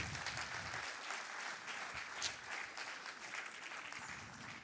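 Sustained audience applause, a dense crackle of many hands clapping at steady loudness for several seconds with no voices.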